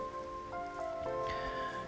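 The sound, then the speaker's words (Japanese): Steady Sunday-morning rain falls outdoors in Sydney, Australia, with a soft, continuous hiss of drops. It is fairly quiet and even throughout, while faint tonal chirps sound in the background. No one speaks. “えー、今日はですね日曜日なんですが朝からシドニーは雨が降ってますシドニーというかオーストラリアはですね結構乾燥してる国なのでね、えー、雨ほとんど降らないんですけれども今日は珍しく朝から雨ですね、え雨の音聞こえますかちょうど外の雨の音をですね、えー、ちょうど取り入れてますけども”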